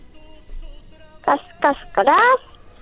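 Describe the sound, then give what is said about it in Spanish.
A child's voice imitates a hen clucking: three close, fairly loud vocal bursts in quick succession, the last one longer and drawn out, over a faint steady background hum. “Ahora hazle como una gallina.”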